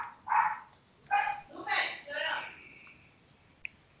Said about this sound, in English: Oh man, it sounds busy back there, man. You're not talking to the puppy. He's talking to you though.